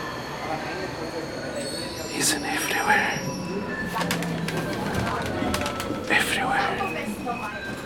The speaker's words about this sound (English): You come back to reality by the irritating sound of seagulls.